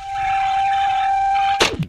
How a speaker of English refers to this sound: is the the Skype ringtone like one of your favorite industrial sounds? Yeah, it is. It really is.